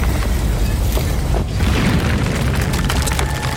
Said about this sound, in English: entire house rattles and shakes.